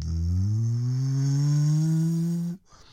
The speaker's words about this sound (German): Das war eine Bontempi Gebläseorgel. Da hat man einen Kippschalter umgelegt. Und dann hat man drin gehört, wie richtig so ein Motor losgelegt